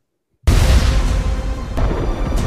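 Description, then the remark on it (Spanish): After a brief silence, a loud explosion bursts in suddenly and rolls into a sustained, deep rumbling roar of destruction that stays heavy to the end, with no voices, in a fantasy series scene of the mass destruction of Middle-earth. “Seguimos con las explosiones y con la destrucción masiva de la Tierra Media.”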